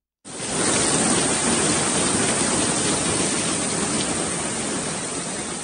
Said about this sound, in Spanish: Es el sonido de una dana, de una gran tormenta antes conocida como gota fría y que ahora se acerca más a un fenómeno extremo del cambio climático.